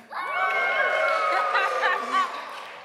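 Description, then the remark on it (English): An audience cheers and whoops together for a contestant in a word game, a dense wash of excited voices with high-pitched shouts rising above, sustained for a few seconds before tapering off. “Um, can I just hear some cheers for”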